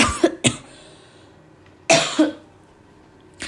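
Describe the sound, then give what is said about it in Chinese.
Several sharp coughs in quick clusters: a double cough, a pause, another pair of harsh bursts, then a final short cough starting. No talking, just the abrupt, rough bursts over quiet background. “我发现就是大家咳嗽都会习惯说拍谁，对不对？”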